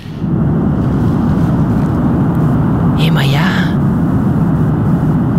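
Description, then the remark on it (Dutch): A steady, hollow roar of the sea heard through a long listening horn, deep, filling the whole recording while a couple of voices briefly exclaim over it. “Dat is toch een heel ander geluid dan dat je gewoon naar de zee luistert.”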